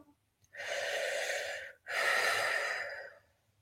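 A slow, deep breath taken to release a mudra at the end of a minute of meditation: a long airy inhale of about a second, a brief pause, then an equally long, steady exhale, with no talking.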